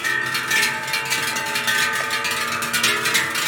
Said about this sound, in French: C'est vrai que ces cloches, quand on les entend taper, ça a une sonorité euh, particulière qui, qui, je pense, prend les gens au cœur quand même. Il y a cinq ou six générations de cloches